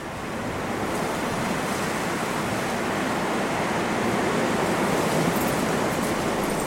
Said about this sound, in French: Quand ça souffle, ça souffle. Au plan d'Aou, il y a tellement de vent que certains enjoliveurs semblent des animaux marins qui ont été soufflés jusque-là.